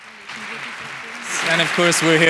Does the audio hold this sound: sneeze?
no